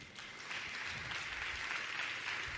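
A crowd claps steadily, a dense, even wash of many hands with no clear individual beats, holding at a consistent moderate loudness throughout.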